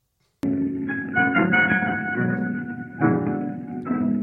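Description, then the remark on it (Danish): Piano chords ring out clearly, a few struck notes and chords following one another and sustaining between strikes, played alone without any voices. “Det lyder meget som et klaver.”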